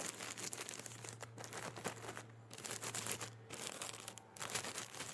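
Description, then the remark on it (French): Paper being crumpled and crinkled, a continuous dense crackling with irregular sharp bursts and brief pauses, with no voices. “J'aime les sons du papier froissé.”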